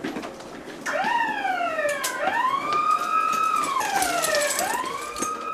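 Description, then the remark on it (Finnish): An alarm siren at an air base in southern Taiwan, sounding as Taiwanese military pilots rush to their F-16 fighter jets, wails steadily, its tone sliding slowly up and down in long sweeping cycles, loud and continuous with no voices over it. “Hälytys soi ja taivanilaiset sotilaslentäjät ryntäävät F-16 hävittäjilleen lentotukikohdassa Etelä-Taivanissa.”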